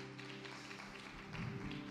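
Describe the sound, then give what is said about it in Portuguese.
An audience applauding at a church service after a prayer, the applause offered to God: a steady wash of many hands clapping together, fairly soft, with a sustained low keyboard drone holding underneath throughout. “Essas palmas são para ele.”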